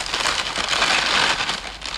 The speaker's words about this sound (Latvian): Čaukstot papīriem, iztinām dažus no muzeja kolekcijas priekšmetiem